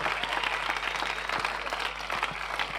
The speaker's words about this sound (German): Hey, können wir Gott nochmal einen Applaus geben? Können wir Gott nochmal einen richtig großen Applaus geben?